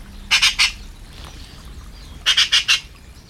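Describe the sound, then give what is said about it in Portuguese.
Magpies on their nest atop a large plane tree in Alijó, Portugal, calling in two bursts of harsh, rattling chatter, each made of three or four rapid grating notes, loud over a low background hum with a quiet gap between the bursts. “pesca, não de peixe, mas de objetos reluzentes, é o que fazem habitualmente as pegas.”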